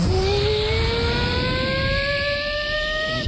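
helicopter engine starting up

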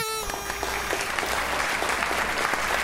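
studio audience applause

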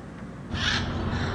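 birds calling

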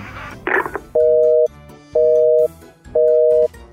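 telephone busy signal

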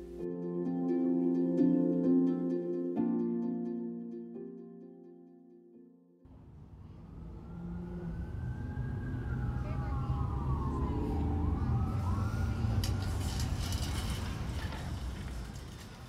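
street traffic

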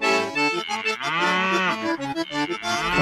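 cow mooing

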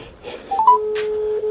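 telephone call ringing out

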